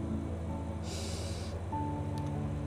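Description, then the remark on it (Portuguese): One short, sharp inhale through the nose during a breathing exercise, a quick breathy sniff lasting under a second, set against a soft, steady background hum with no talking. “Concentra o exercício de respiração onde você vai respirar pelo nariz curto.”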